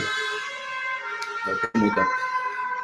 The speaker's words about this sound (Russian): Извините, у меня тут очень громкие сирены.